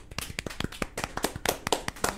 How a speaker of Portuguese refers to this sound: Cairo Salim uma salva de palmas para o deputado.